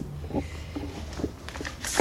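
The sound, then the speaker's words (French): Crinkly rustling of paper posters being handled, posters collected from the metro and streets of Paris, with short bursts of crackle and scraping spread irregularly over a couple of seconds, no voices. “Ah, tu veux du bruit de papier”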